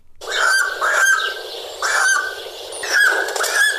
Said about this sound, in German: Ja. Natürlich ist es ein Adler.